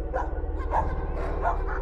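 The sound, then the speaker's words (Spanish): Several dogs all around bark repeatedly in the distance, farther from a house, sounding desperate, their overlapping yips and woofs coming in uneven bursts over a steady low background hum, with no one speaking. “Pero lo extraño es que ladraban los que estaban más lejos de mi casa, porque mis perros y los de mi vecino estaban completamente en silencio,”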